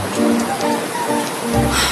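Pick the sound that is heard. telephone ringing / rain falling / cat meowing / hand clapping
rain falling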